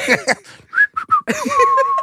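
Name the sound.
a person whistling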